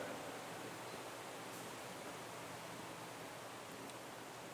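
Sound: electric fan running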